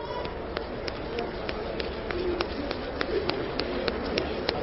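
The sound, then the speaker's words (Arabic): Light, scattered tapping from many hands, an audience each tapping one finger on the left palm to imitate rain, overlaps in a soft, irregular patter like the start of rain, over a steady hum with faint murmuring. “اعملوا ايديكم الشمال كده ايديكم الشمال ايدينا الشمال نعمل ايدنا الشمال كده خلاص صباع واحد صباع واحد فقط اضرب”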